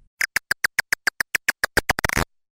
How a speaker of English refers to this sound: Researchers can take the recordings and shift the bat call frequencies into ranges that human ears can detect. Here are some examples. This is the sound of a hoary bat. This is a silver haired bat. And here's what a big brown bat sounds like.